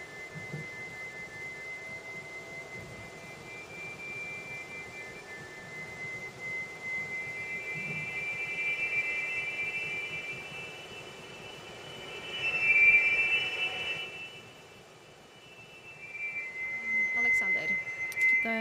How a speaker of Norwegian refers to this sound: Det vi hører nå, er altså lyden av en fiolin. Altså det er spilt inn på forhånd, og så er det kontrollert gjennom mikrobevegelsene til én danser.